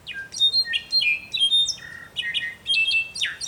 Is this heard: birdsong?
yes